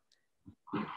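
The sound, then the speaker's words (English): A dog squeaks in a few brief bursts: a faint high squeak, a soft low huff, then a louder, rougher whine to finish, with quiet gaps between and no talking. “just because you can hear my dog squeaking in the background we froze it.”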